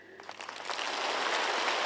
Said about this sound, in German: Der Applaus war allerdings eindeutig. Sie sind bereit für Xi XXL.